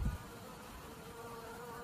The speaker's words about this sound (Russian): Медоносные пчелы дома, в квартире, как домашние питомцы. Ничего необычного.